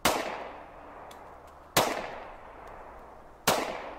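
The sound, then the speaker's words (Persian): Three loud gunshots crack out at steady intervals during a court session, at dusk around 5:30 in the afternoon in cold weather, each one sharp and sudden before fading into a long, echoing tail. No voices can be heard between the shots. “ساعت نزدیک پنج و نیم عصر هوا سرد تو گرگومیش غروبه که یهو یه صدای تیر میاد چند دقیقه بعدم چند تا دیگه”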